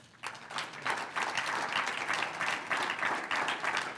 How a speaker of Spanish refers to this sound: ¿Cuántos dicen gloria a Dios? Un aplauso al Señor.